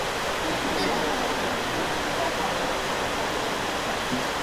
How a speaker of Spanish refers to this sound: No importa la lluvia, hermanos, la lluvia es una gran bendición. Y siempre lo digo, que cuando estamos en la iglesia y está lloviendo, mejor porque nadie se va.